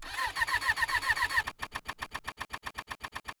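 A motorcycle engine cranks over and over as the key is turned, in a fast, steady chugging rhythm without catching, first a denser whirring stretch, then sharper separate pulses, with no voices. The motorcycle fails to start in Jeju as darkness begins to fall.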